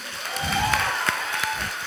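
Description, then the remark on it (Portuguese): A church audience applauds for the overflow crowd seated outside in the parking lot, a dense, steady wash of many hands clapping, with a few sharper claps standing out above the continuous sustained clatter. “Você pode dar um forte aplauso a todos aqueles que estão sentados lá fora.”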